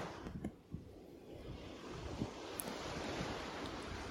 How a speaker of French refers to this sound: Et puis vous allez vous laisser bercer par le mouvement des vagues qui vont et qui viennent tout comme votre respiration. Vous vous laissez bercer vous vous détendez un peu plus à chaque mouvement.